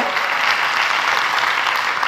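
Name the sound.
applause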